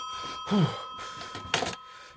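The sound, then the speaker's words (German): A telephone in a bicycle shop rings with a steady, high electronic tone that holds throughout, joined by a couple of brief louder clattering bursts. “Es klingelt. Äh, äh, Telefon.”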